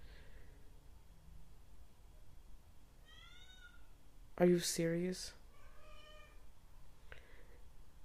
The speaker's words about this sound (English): My cat is literally screaming next to the door.